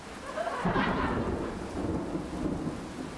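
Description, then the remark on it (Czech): Steady rain pours down with a low rumble of thunder rolling through early on, the downpour continuing as a dense hiss afterward. No one speaks. “Prší.”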